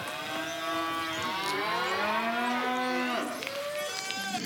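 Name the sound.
cows mooing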